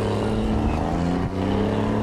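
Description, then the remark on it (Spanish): A car drives off on its way to a village, its engine a loud, steady drone with a brief dip midway, like a gear change, then carrying on at the same pitch. No voices. “Elaboró su famosa mousse de manzana confitada y se puso en camino al pueblo en su coche.”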